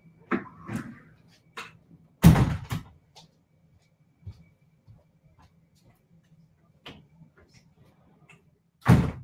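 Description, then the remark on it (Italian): Windows being shut indoors: a loud sharp thud, a few lighter clicks and rattles of handles and frames, then a second firm bang at the end, with quiet shuffling in between. “aspetta che lo prendo così chiudo le finestre perché c'è troppo rumore.”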